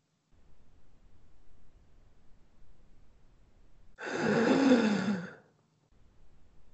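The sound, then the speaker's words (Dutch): A single loud, rasping breath with a snoring, growly rattle from a masked creature with a broken face, harsh for about a second and a half, set against a faint low background hum. “Zijn adem raspt en snurkt.”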